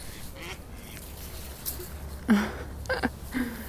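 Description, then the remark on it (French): A duck that has just landed beside the Oise river gives a few harsh, raspy quacks, fainter at first and then three louder ones close together near the end, over a low, steady outdoor rumble. “Au bord de l'Oise, à côté d'un canard qui vient d'atterrir super vite.”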